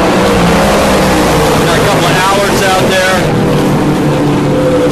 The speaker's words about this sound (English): Well, here they go, guys. Can't say much when all that stuff's going on. Here they come. It's like a uh, Lister Corvettes out in front. Hear the roar of the Chevrolet.